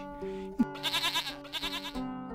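A goat bleats loudly, giving a couple of quavering, vibrato-laden cries in quick succession, with no voices around it.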